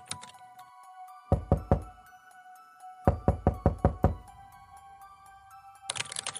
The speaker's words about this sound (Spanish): ¡Mierda! ¡Está golpeando mi puerta!